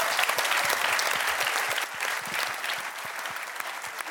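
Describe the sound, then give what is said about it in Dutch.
A crowd claps steadily and warmly, a dense wash of many hands sustained throughout, with no one speaking over it. “En nog één keer een heel warm applaus voor de mannen van de Conveel Minder podcast.”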